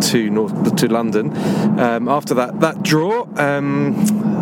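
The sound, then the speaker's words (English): A steady, low engine and road rumble from inside a car on a motorway, hurtling at breakneck speed back from Carrow Road, runs continuously beneath a man talking. “excuse the background noise a bit. We are hurtling back um, breakneck speed from Carrow Road”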